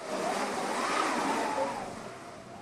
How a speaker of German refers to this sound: Windmaschine? Ein Musiker bedient eine rotierende Holztrommel, über die Stoff gespannt ist. Herauskommt das etwas künstliche Brausen eines heftigen Windes.